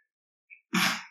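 A single sneeze: a brief, faint intake of breath, then a loud, explosive burst of breathy noise that trails off within half a second. No one speaks.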